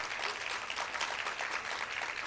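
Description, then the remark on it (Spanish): An audience claps together in dense, steady applause, many hands producing a continuous crackling wash that holds at an even loudness throughout, with no voices standing out. “Pero aplaudan con ganas.”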